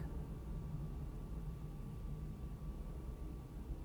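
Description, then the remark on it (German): A steady, low rumbling drone of an airplane passing high overhead, faint, holding an even level with a thin whine on top and no voices. “Und jetzt noch ein Flugzeug.”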